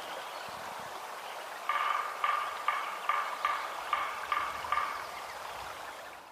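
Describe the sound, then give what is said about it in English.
A woodpecker drums about eight evenly spaced knocks in a steady rhythm, moderately loud, in a forest after selective logging, over a constant soft hiss of forest ambience, then the tapping stops and only the background remains. “And coming up is the sound of a woodpecker.”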